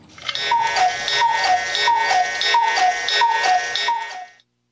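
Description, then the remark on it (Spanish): A cuckoo clock chimes, sounding six steady two-note calls, each a high note dropping to a lower one, over a bright mechanical whirr that cuts off abruptly after the last call. “Ese cucú, como me agrada escucharlo.”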